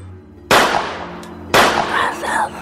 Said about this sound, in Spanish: un balazo le tiro y echo a correr. Voy a ver a dónde a dónde cayó, porque yo lo vi parado ahí.